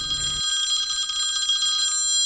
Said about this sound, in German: Als sie gerade mit der letzten Probe haben anfangen hat das Telefon geläutet.